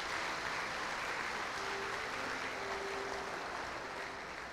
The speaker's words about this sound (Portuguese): Pode aplaudir, se for para aplaudir, aplaude.